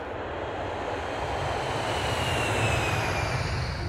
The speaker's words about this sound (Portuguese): O avião com caixão com corpo de Tancredo Neves acaba de chegar à base aérea de Brasília e seguirá para o Palácio do Planalto e será conduzido para o Salão Nobre, onde milhares de pessoas aguardam para dar o último adeus.